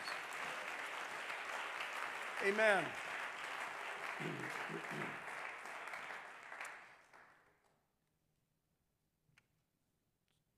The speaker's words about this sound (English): Can we clap our hands to Him and give Him praise?